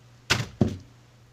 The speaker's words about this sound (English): Did that come through? Yeah, some some thud. What was that? My phone fell.